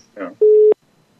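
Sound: telephone call tone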